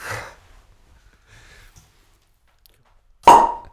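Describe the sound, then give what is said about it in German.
A single sharp, loud pop bursts out near the end with a brief resonant ring as a cork that had sat for 30 years is forced from a small, thin, elongated bottle, after a few seconds of faint rustling and breathing. “Ist die Katze fast an die Decke gegangen bei den, bei den Floppen.”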